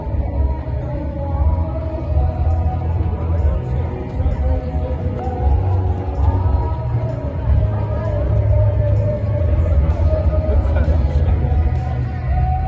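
A rock band plays somewhere off in the distance, muffled and bass-heavy, as if heard from outside a venue, with a steady murmur of crowd chatter around the listener throughout.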